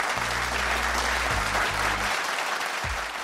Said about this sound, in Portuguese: E nosso podcast está comemorando um ano de existência. Uma salva de palmas!